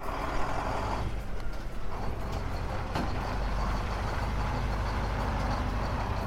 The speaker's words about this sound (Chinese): 山羊爷爷开着车，带着优秀的动物们出发喽。